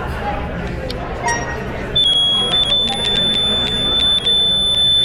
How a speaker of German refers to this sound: es bleibt in gleich, mehr oder weniger gleichbleibender Ton. Weil die, die Farbe helle, Genau. In heller Ton sagt helle Farbe, in dunkler Ton, wenn man es jetzt bei dieser Dame gegenüber machen würde, wäre es äh, dunkle Tonart, würde er sagen